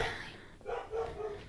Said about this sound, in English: Excuse the dog if you can hear it. I'm so sorry. I'm dog sitting for my parents.